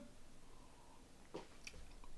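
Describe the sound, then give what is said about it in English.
A quiet sip from a green winter-edition drink can: a couple of brief wet mouth and liquid sounds near the middle, with a soft swallow-like click after, and no talking. “I'm gonna take another sip.”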